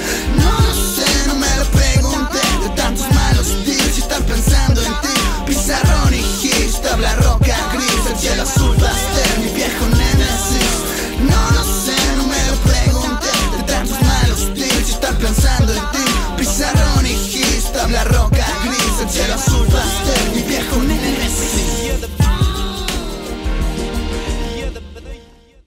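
A full, loud song plays continuously with a steady beat, thick bass and layered instruments, sustained throughout before quickly fading out at the very end.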